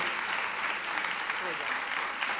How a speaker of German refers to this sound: Können wir einen Mut Applaus bitte für Hella von kriegen?